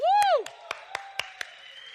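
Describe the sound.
A church audience claps in steady unison during a service, about six sharp, evenly spaced claps, following a brief rising and falling voiced tone, with a faint sustained tone underneath, applauding an announced church retreat.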